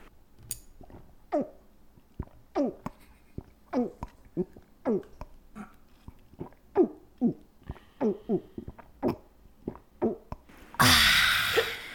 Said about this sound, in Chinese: 我先跟大家示范，我真的很厉害的才艺，一般人真的做不到，就是喝水。我先喝给喝一口给大家听听，喝水，喝任何饮料都可以啊，喝喝液体的东西就可以了。对，你们听一下哦。